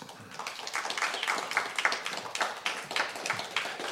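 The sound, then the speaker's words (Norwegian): A small group applauds steadily for an arriving guest, a dense patter of overlapping handclaps that stays at an even, moderate level throughout without any voices. “kom og sett deg her, og gi ham en liten applaus.”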